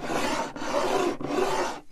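A ceramic mug containing water is slid across a table three times in quick succession, each push making a loud, rough, grinding scrape that lasts about half a second. No one speaks.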